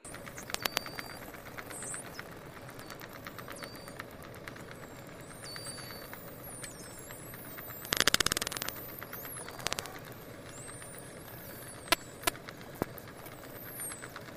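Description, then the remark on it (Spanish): High, sweeping dolphin-like whistles rise and fall over a steady underwater hiss, interspersed with sharp clicks and a dense, loud burst of clicking midway through. No one speaks. “segundo tipo de emisión, dentro de lo que antes hemos comentado de los clics y los silbidos, están los silbidos.”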